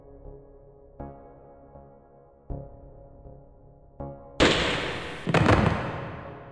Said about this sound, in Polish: Słyszałem pojedynczy strzał, a potem upadające na beton ciało.